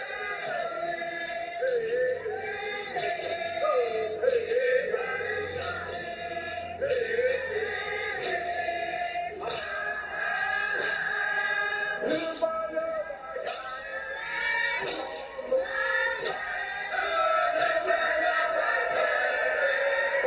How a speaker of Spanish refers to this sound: el sonido de la selva, el bosque tropical más grande del mundo. Gracias, Amazonas.